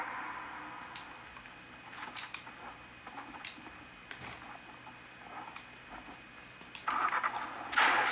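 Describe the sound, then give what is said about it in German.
A video game car engine, of a car the player has stolen, sputters and starts over low background noise, the revving growing louder and harsher toward the end. “Ah, ich habe das Auto geklaut.”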